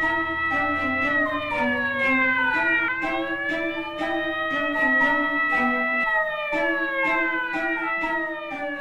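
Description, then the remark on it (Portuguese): A police car siren wails loudly and steadily as the police car arrives at a refinery at almost two in the morning, its pitch sweeping up and down in slow repeating cycles, with no voices present. “Quando o casal ouviu o carro da polícia chegando quase duas da manhã, o balão estava quase cheio, mas não o suficiente ainda para subir com o peso deles dois.”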